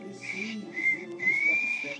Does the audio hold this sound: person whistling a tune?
yes